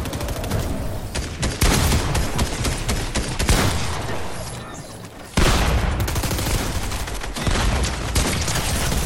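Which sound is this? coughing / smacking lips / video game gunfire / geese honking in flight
video game gunfire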